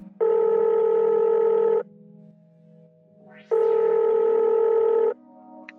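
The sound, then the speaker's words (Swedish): Two long ringback tones on an outgoing phone call to a researcher for an interview, each a steady buzzing ring lasting about a second and a half, separated by a quiet pause. “Ehm, jag ringde upp och snackade lite med henne om det här med vad, hon har, vad hennes arbete går ut på och vad den här forskningen har kommit fram till.”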